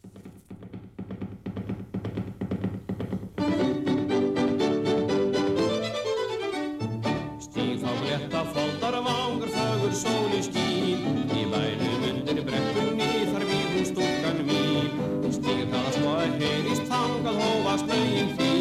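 A lively song plays, opening softly before the full band kicks in loudly after a few seconds and keeps up a brisk, steady beat with bright, tuneful melody lines.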